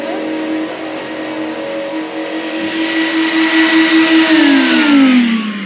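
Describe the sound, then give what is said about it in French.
A giant vacuum cleaner roars steadily at a photography festival in Vendôme, its loud motor whine layered over a broad rushing hiss, with the pitch shifting and climbing slightly toward the end. No one speaks. “on est ici aux promenades photographiques de Vendôme, on est accueilli par un aspirateur géant”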